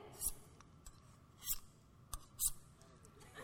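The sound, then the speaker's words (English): A knife being sharpened on a steel: three bright, high-pitched metallic scrapes at uneven intervals, with small clicks between them, fairly quiet, with no talking. “the sound of knife sharpening is really uncomfortable to your ears”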